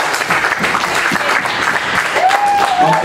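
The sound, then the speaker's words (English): A crowd applauds Dr. Watkins loudly and continuously, dense clapping holding steady throughout, with a brief high whistle-like tone sliding in over the clapping near the end. “We're all up here, so we, can we a big, big round of applause this year for Dr.”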